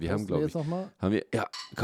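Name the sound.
beer bottles clinking together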